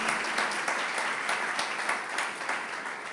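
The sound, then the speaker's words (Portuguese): A church audience bursts into steady applause for the Lord in the name of Jesus, many hands clapping together in a dense, continuous wash of sound with a few sharper claps standing out, sustained for several seconds without any talking. “É, vamos lá, vamos aplaudir o Senhor, em nome de Jesus.”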